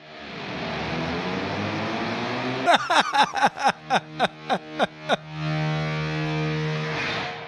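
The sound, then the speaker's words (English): Voices imitate the THX cinema sound logo: a swelling, rising harmonic glide, then about nine quick rhythmic pulses, ending in a loud sustained droning chord. “That's our best impression of the THX sound, you know?”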